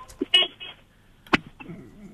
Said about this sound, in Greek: στο αυτοκίνητο είσαι. Ναι. Για να ακούσουμε την κόρνα λίγο.